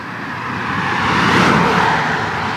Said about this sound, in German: Was ein hässliches Auto.